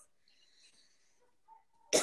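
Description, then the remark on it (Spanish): A single sharp, loud cough bursts out near the end, after nearly two seconds of quiet with faint background tones. “Pero mira, tose con tranquilidad. Ahí salió.”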